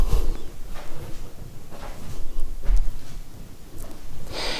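Kitchen handling sounds as bowls are fetched: a few scattered knocks and clatters, a cupboard or drawer shifting, and a brighter clink near the end, over a low rumble.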